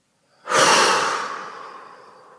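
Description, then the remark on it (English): A single deep breath, held during a breathing exercise, released in a long, airy exhale, fairly loud at first, then tapering off gradually over a couple of seconds after a brief silence. “Breathe in and hold two, three, and release.”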